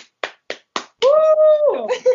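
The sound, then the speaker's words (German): Four or five sharp, evenly spaced hand claps ring out, then a sustained, gliding voice cuts in loudly, like a cheer, as the clapping gives way. “Ein Applaus”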